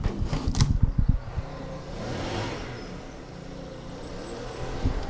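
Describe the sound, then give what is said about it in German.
Motorized leaf blowers operated by a group of young men drone outdoors, a steady whirring roar that swells and eases slightly, with a few low thumps and clatters near the start. “Und jetzt fangen die Jungs mit ihren Raubbläsern da draußen an.”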